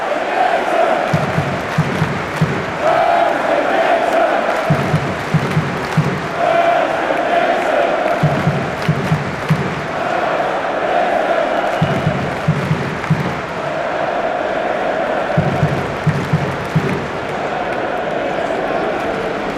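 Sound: football stadium crowd applauding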